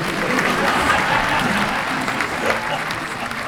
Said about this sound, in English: Yeah, one more round of applause. So many round of applauses.